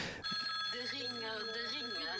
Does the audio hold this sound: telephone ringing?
yes